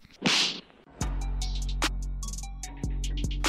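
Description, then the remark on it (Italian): A swooshing rush followed by a sharp whip-crack, then a low sustained rumble with a few more snapping cracks scattered over it, like a loud produced sound effect with no talking. “andiamo allo schiaffo della settimana.”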